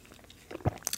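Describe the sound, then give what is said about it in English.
A few quiet mouth sounds: a soft slurping sip of coffee followed by brief wet swallowing noises, with no talking. “let me take a sip of Java.”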